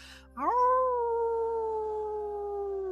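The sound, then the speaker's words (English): A single long, wavering howl, a person imitating a wolf during a ceremony around a fire, rises sharply at the start and then holds steady and loud for several seconds, with no talking. “Yip, yip, yip, you hear people howling like animals as you join in”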